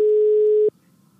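A steady, loud telephone tone sounds as a call is being placed, holding a single mid pitch for about two-thirds of a second, then cutting off abruptly, leaving only faint low background noise.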